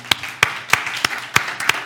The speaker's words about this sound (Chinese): 阿门吗？我们给再次给神一个掌声。